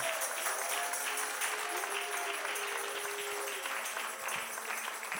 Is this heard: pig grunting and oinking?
no